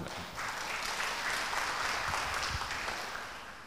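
An audience applauds a co-founder seated at the back, a dense wash of many hands clapping steadily at a moderate level for a few seconds, tapering slightly toward the end, with no voices standing out.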